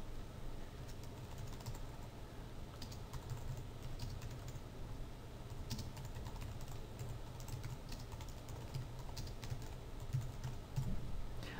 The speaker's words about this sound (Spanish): Y ahora que le decimos texto en trazado, hacemos clic al comienzo y escribimos.